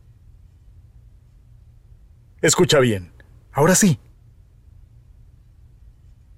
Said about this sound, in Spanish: Ese es el sonido de los usuarios del metro que cuidan su salud y la de los demás. Y es que al viajar callado en el metro de Panamá, estás reduciendo las probabilidades de más contagios. Tu silencio dice mucho. Viaja callado.